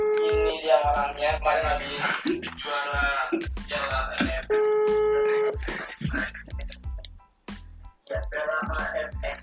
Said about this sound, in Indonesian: oke kita telepon orangnya ya semoga orang nggak sibuk